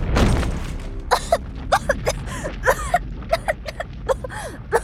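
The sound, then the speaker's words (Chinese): A loud explosion blast in a cartoon story, blowing open a vault door with a huge shockwave, bursts at the start, its low rumble fading over a few seconds, while a quick series of short, high chirping and pinging tones follows. “一声巨响，掀起了巨大的冲击波，把兔子警长弹飞了出去。”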